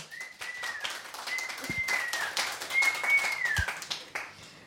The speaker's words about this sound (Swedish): En applåd!